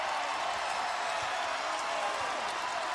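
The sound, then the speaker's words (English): A basketball arena crowd at a USF Bulls game cheers in a loud, steady roar in the final seconds as USF wins 75 to 51, a dense wash of voices holding without a break from start to finish. “Listen to this crowd.”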